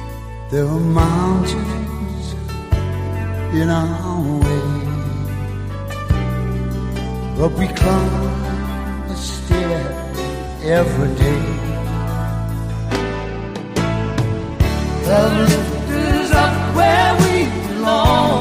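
A ballad duet from a film soundtrack plays at full volume, with sung vocal melodies over sustained low bass notes and warm backing instruments, the song flowing steadily without pause.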